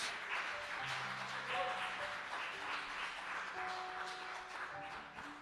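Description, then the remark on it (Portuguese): A worship audience claps steadily and continuously for several seconds in praise of the Lord, the dense patter mixed with scattered voices calling out and sustained vocal tones underneath. “Aplaude o Senhor, irmãos, em nome de Jesus.”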